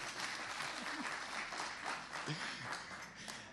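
A crowd applauds steadily for a few seconds, dense clapping filling the whole clip at a moderate level, with a few faint voices and calls mixed underneath.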